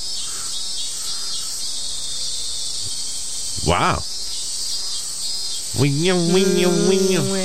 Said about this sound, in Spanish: Actually, no, this is the real sound of the cicada. Listen.